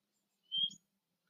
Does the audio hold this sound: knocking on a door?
no